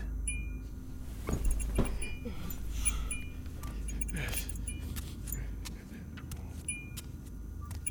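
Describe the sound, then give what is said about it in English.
Two keys jangle and clink in a few short metallic bursts as they are grabbed from a table, with scattered lighter rattles in between, over a low background hum. “walked over to the table and grabbed the two keys.”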